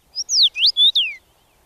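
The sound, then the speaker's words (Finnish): A common rosefinch male sings a short, clear whistled phrase of about five sliding notes, rising and falling, loud, with no other sounds around it. “Viikon luontoääni: Punavarpunen”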